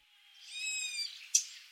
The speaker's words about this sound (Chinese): 这种鸟叫黑短角杯啊，我们第一次在青城山听到它这个叫声呢，当时就。一瞬间有点懵啊，就分不清楚到底是猫呢还是羊在叫。